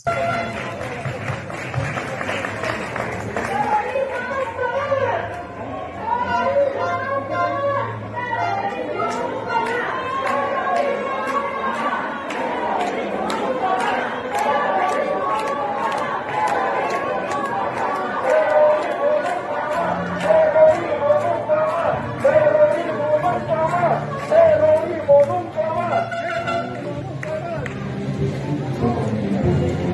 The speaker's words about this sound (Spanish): mostrar son hasta el himno nacional, ¿no? Entonar las notas a voz en pecho de un grupo de gente que está allá afuera indignada, ¿no?